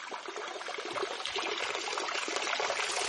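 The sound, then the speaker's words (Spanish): Rainwater trickles steadily into a rusty metal tank in which a community collects rainwater during the dry season, a continuous, fizzy splashing that holds an even level for a few seconds at moderate volume, with no voices. “En este tanque oxidado la comunidad recolecta agua de lluvia.”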